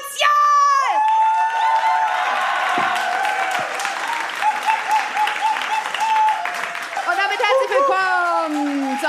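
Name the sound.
audience applauding and cheering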